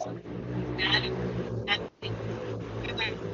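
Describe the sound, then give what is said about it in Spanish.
A motorcycle engine drones steadily on a street, its low rumble holding throughout with a brief dip near the middle, while voices come in briefly over it. “¿Quién se fue en una moto, digo?”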